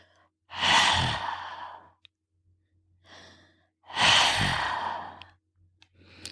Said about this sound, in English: Imagine you are fogging up a pair of glasses. You should hear a soft hissing sound like that.